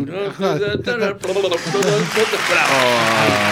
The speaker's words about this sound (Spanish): Os estoy aplaudiendo desde aquí.